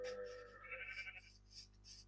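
A single sheep in a video game bleats in a drawn-out, wavering call, slightly synthetic, clear against a quiet background hum with no talking.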